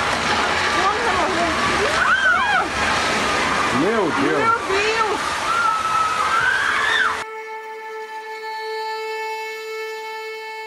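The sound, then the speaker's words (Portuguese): Floodwater rushes and sloshes loudly and steadily through a street in São Paulo, Brazil, after heavy rain on Monday, 10 February, as people wade through it, while a voice cries out in alarm; after about seven seconds the water cuts off and sustained electronic tones take over. “Olha isso, as pessoas passando na água, porque não dá para ir pro trabalho.”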